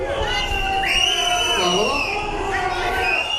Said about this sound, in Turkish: Bugüne kadar durumu görmezden gelen Sırbistan Başbakanı bugün Novi Pazar'a gitti. Halk hastane önünde açıklama yapan başbakanın konuşmasını ıslık ve yuhalamalarla böldü.